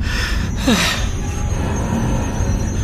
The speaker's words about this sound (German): Hast du das gehört? Hm? Ich glaube, der Zug hält gerade an. Wirklich? Wir halten endlich an?